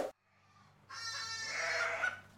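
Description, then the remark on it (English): A goat or sheep on a farm lets out a long, wavering bleat lasting over a second, loud, with a fainter cry before it and a low steady hum underneath. “And today, we're taking a trip down to the farm.”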